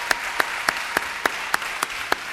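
An audience applauds in a dense, steady wash of clapping, with a few sharp claps standing out at an even, rhythmic pace. No one speaks.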